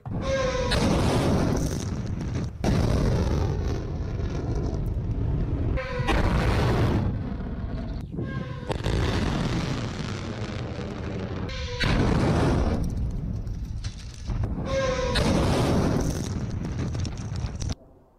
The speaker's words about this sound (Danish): Kan du prøve at fortælle, hvorfor et hypersonisk missil lyder på den her måde, som om altså, det bliver skudt af igen og igen?